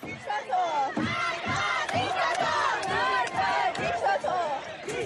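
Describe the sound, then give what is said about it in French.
A large crowd screams and shouts in panic in a metro during protests, many voices overlapping in loud, wailing cries that continue without pause, with a few sharp cracks cutting through the uproar as security forces appear to fire on the crowd. “Des membres des forces de l'ordre semblent tirer sur la foule.”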